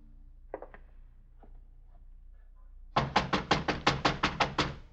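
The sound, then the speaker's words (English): A rapid series of about ten firm knocks on a wooden door at a boarding house in Missouri, loud, rattling out in a quick even rhythm after a moment of quiet with a few faint shuffling sounds. “Now, who is it? The Fort. Door's open. Come on in, boys.”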